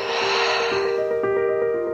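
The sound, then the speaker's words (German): A deep, audible breath drawn in through the nose during a mindfulness breathing exercise, the airy rush fading within a second, with soft sustained musical tones ringing underneath. No one speaks. “Und dann atmen wir einmal tief ein über die Nase und über das Maul aus.”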